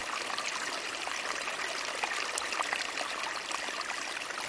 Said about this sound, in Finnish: No, täällä, täällä tämä metsää riittää Nuuksiossa. Kyllä puro lorisee nätisti sinne. Tää on kyllä upea ääni. Siinä mieli rauhoittuu, kun tämmöistä jää kuuntelemaan.